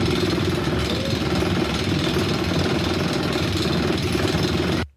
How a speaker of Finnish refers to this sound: No, tämä on huvipuistossa vuoristorata kautta vastaava joku laite, kun se vaunu hinataan nousua ylöspäin, niin se kuuluu siitä tämä ääni.